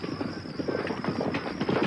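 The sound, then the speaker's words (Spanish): Several horses' hooves drum in a quick, continuous clatter, growing slightly louder toward the end as a party of riders approaches, with a steady hiss in the background. “¡Se acerca una partida!”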